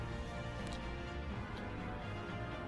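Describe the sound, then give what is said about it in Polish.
Rhythmic cracking and creaking of tree branches, a dense woody texture with a few sharper snaps standing out, steady and moderately quiet throughout, with no voices. “To jest dźwięk, który y, w sensie kolejno trzaskające, trzeszczące y, gałęzie, one układają się rytmicznie.”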